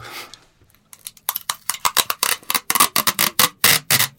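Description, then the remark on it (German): Tesafilm sticky tape is pulled off a Tesafilm dispenser roll in a quick series of crackling, rasping bursts, about a dozen sharp pulls in a steady stuttering rhythm, loud and with no one talking. “Ja, du rollst Tesafilm von diesem Tesafilm-Abroller ab, ab.”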